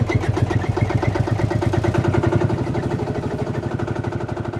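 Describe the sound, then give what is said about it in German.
A tractor engine running loud, with a steady, rapid low chugging rhythm and rattling clatter, like an old diesel settling into idle after starting, as a convoy of tractors sets off. “weil miteinander sprechen auf dem Traktor während der Fahrt eher in ein gegenseitiges Anschreien ausartet”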